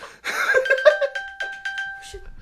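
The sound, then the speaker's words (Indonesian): An iPhone's Find My locating alert, accidentally triggered from a watch, pings with a steady, bright electronic chime that rings through the whole moment, while people laugh and talk loudly over it. “kepencet ini dari jam gua ada oh, find, find my, my phone. iPhone.”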